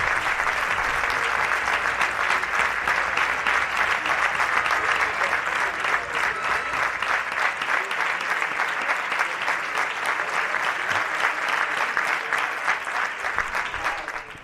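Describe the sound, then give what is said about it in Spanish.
A football crowd at the Álvaro Álvarez stadium of Unión Deportiva Melilla gives a sustained ovation to Sergio Pérez as he is substituted off for Carlos Brand, dense rapid clapping holding steady and loud for the whole stretch with a faint murmur of voices underneath, easing slightly only at the very end. “escuchamos la ovación que se va a llevar del Álvaro Álvarez”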